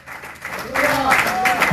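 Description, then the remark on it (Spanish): Scattered clapping from a group giving applause to God swells after a quiet start and keeps going as a steady patter, with voices calling out loudly over it. “Dele palmas a Dios por lo menos para que se le vaya esa, esa cosa rara.”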